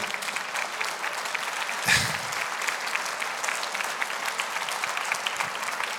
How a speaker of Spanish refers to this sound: Cristo es el Dios eterno. Dale un aplauso a Él.